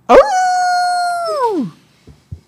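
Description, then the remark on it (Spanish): A single loud wolf howl, holding a steady pitch for over a second before sliding downward and fading, followed by two faint soft thuds. “Érase una vez un lobo.”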